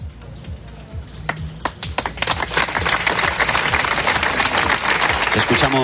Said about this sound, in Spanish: los aplausos con los que se rompía ese minuto de silencio